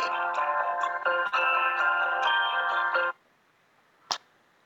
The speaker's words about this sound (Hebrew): סליחה על ההפרעה. הכל בסדר. אה, גם אני אה, קיבלתי פה טלפון מפרופסור חשוב אוקיי. ממועצת העיתונות, תוך כדי אוקיי. השיחה שלנו.